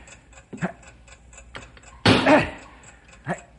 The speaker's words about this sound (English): You've got to drive that wedge in there and stop that ticking. How hard can I hit the wedge? All you've got. Start driving, man. There's no time to waste. Right. still hear the ticking